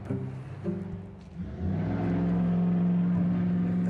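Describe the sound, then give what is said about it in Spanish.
A jeep's engine rumbles past, a low droning hum that shifts in pitch and swells louder after the first second and a half, then holds strong and steady. No one speaks. “un jeep.”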